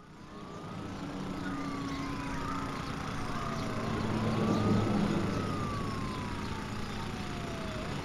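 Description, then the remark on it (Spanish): Busy street noise in a medium-sized Spanish city with steady traffic rumble, while an emergency siren wails through slow rising and falling sweeps, fairly prominent. “Estamos en una ciudad media española. El ambiente sonoro nos sitúa rápidamente en un entorno familiar.”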